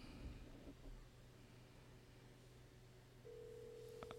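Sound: telephone call being dialed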